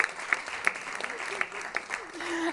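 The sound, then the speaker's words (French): Audience applause: a dense patter of many hands clapping, steady and fairly loud, with a few sharper claps standing out and faint voices mixed in beneath the noise. “Vas-y, applaudis, qu'est-ce qu'il y a”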